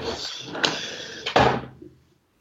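A drawer slides open with a long scraping rumble, clicks partway through, then shuts with a firm knock before the sound trails off. It is fairly loud, with no one talking.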